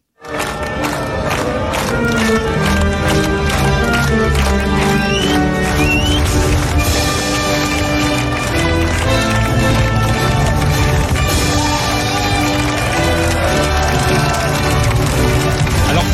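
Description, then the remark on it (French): A large crowd sings the French national anthem, La Marseillaise, over loud backing music at the podium trophy ceremony for Johann Zarco, as heard on the Canal+ broadcast, the many voices ragged and drifting out of time with one another, dense and continuous throughout. “personne n'est dans le bon tempo, c'est un peu décousu, j'explique pourquoi, parce que à la télé on entend la Marseillaise, mais sur le podium il y a un problème technique, il n'y a eh donc pas de Marseillaise.”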